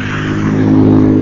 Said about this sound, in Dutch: En je hoort misschien wel dat er eh, auto's voorbij rijden. Of misschien niet.